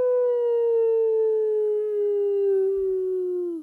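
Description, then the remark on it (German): A person lets out one long, loud howl with an echo effect, the pitch sliding slowly downward for a few seconds, with no other sounds or talking. “Mit Echo klingt uns alles viel cooler.”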